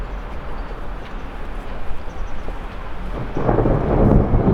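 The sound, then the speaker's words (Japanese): A low, continuous rumble of thunder from overhead by the Kamo River rolls on for several seconds, swelling louder and closer toward the end with a heavy, broad roar as a storm approaches, heard alone without any voices. “おおお遠くじゃなくなってきたなんか上から聞こえたえ来るんですかこれここにも今のは上から来ましたね音がいやー一雨来るかもしれないですね”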